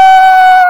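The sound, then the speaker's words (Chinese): A person telling a children's story imitates a rooster's crow with a single loud, high-pitched call held at a steady, piercing pitch for under a second. “鸡找不着鹿，觉得非常懊悔，所以每天天一亮，它就站在高处，在森林大叫：“哦哦哦！”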